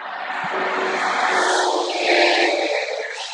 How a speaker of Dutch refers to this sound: Horen jullie dan trein?